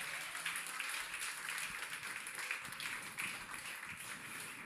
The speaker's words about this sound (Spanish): Dale un aplauso fuerte Rey.